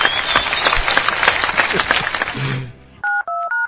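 About two and a half seconds of steady applause, dense rapid clapping that fades out, followed by four short electronic two-tone beeps like telephone keypad tones.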